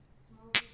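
A single bright clink of glasses touching in a celebratory toast over a second round of drinks, with a short high ringing tone that fades quickly over quiet, faint murmuring.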